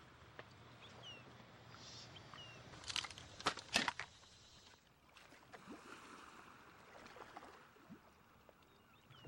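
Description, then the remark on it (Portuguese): Steady watery wash of the sea fills the background, with a few louder splashing bursts around the middle, like water slapping against a small boat. No voices. “Não, só barulhos do mar, oceano.”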